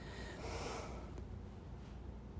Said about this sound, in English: Wow, what a difference being able to take a full breath in.